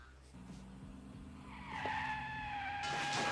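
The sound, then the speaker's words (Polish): Tires skid and squeal over rumbling car engines, a sustained high-pitched screech rising and growing louder near the end, like a movie car chase. “Pościgi.”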